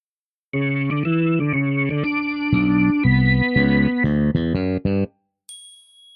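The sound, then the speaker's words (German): A short transition music stinger of about four and a half seconds: a loud, distorted, chorused chord sequence with rapid stepped changes near the end, followed by a brief high bell-like ding. “Und okay, als Überleitungsmusik kommt dann heute für Foko das Stingel, damit er sich nicht ärgern muss oh, und nicht wieder oh, fragen muss.”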